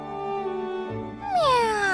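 A single long cat meow, held on a steady tone and then swelling louder as it slides downward in pitch, heard alone with no talking.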